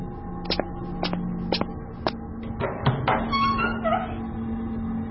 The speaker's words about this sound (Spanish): El sonido de las bisagras oxidadas hizo que un gran escalofrío recorriera mi cuerpo